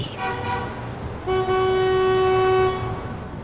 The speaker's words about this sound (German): Puh, die Straßen von New York sind voller Lärm, Dreck, Staub, Geschrei, ein einziges Chaos. Das Getöse vom Hochbahnzug mischt sich mit den ersten hupenden Autos und der Straßenbahn, die teilweise noch von Pferden gezogen wird.